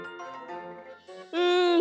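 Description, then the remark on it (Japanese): A doorbell chime sounds as a visitor rings repeatedly, two bright tonal notes, the second louder and held steadily, ringing clear with no talking. “ピンポン。お客様です。あ、ちょ、そんな何回もしたら”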